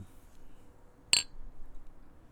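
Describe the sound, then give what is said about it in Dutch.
Two winter beer glasses touch in a toast during a quadrupel beer tasting, making one bright, ringing clink that fades quickly against a quiet, faintly rumbling background, with no one talking. “toch die winterglazen, die laten we maar wel mooi mm -hmm. klinken iedere keer.”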